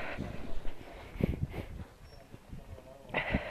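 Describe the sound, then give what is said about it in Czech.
Someone blows their nose in a few short, breathy bursts, two close together and then another after a pause, with soft rustling and handling noise in between. “Smrkání, nejnáročnější činnost.”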